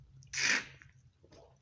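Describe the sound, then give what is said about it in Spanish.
One loud slurp of mate drawn through a metal straw, a short airy gurgling rush lasting about a quarter second, followed by faint wet clicks over a low steady hum. “Oh, sientan ese ruidito. No le das ganas de tomar un mate, ¿no?”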